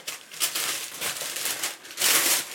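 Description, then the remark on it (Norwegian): Continuous crinkling and rustling of wrapping paper as a wrapped gift of framed prizes is unwrapped on air, with brighter bursts of crackle near the start and a louder, sustained rustle toward the end; no talking. “Og du får lov til å åpne de på luften. Pakke de inn og greier.”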